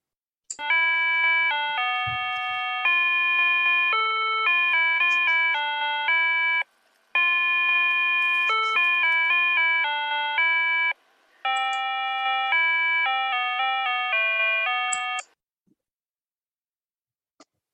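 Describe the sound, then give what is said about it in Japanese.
A school bell chime at a children's school plays a slow, clear melody of sustained electronic tones in three phrases with brief pauses, loud, with no voices, then fades to silence. “I wonder there's a concept of physical school 50 years from now. And this is a, a really nostalgic sound for me to remind me of my childhood.”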